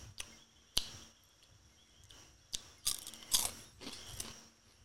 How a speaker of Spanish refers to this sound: Esto no se chupa, esto es un chito. Pero vamos a saber a qué sabe por afuera. Ay, mordiéndolo no sabemos a qué sabe. Me dijiste no lo muerdes y tú lo estás mordiendo. No estoy mordiendo. Escuché el crash, crash.